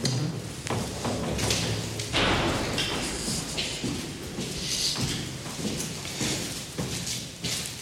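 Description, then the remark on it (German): A stairwell door being opened and shut, with heavy thuds and a clattering latch over a few seconds of hollow, echoey handling noise. “Wir haben dann probiert, ob wir ins Stiegenhaus kommen, also den unmittelbaren Tatort. Okay, der ist offen.”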